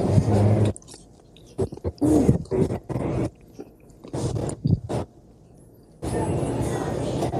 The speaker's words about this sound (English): Sorry, I'm chewing the pastelillo.